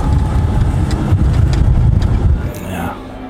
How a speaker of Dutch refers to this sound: Het is even wennen dit beeld, dat een oldtimer zo geruisloos wegrijdt. En hij is best wel vlot. Hij is een stuk vlotter dan op benzine.